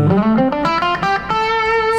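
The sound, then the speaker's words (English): Electric guitar through an amp with a compressor at low volume, a short run of notes ringing out with long, even sustain. Steady in volume, played alone with no voices. “yeah, so that's more of my everyday, but I usually have the compressor on, which sounds like this.”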